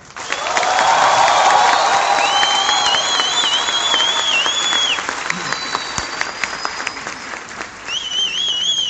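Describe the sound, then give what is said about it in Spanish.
Loud, sustained applause from a crowd, with shrill whistles and cheers rising over the dense clapping; the ovation stays strong throughout and thins slightly toward the end. “Yo quiero que los que estuvieron ayer le demuestren a los nuevos cómo se sintieron con un fuerte aplauso y una euforia.”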